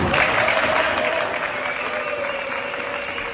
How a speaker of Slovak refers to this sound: Aj tento sprevádzal potlesk.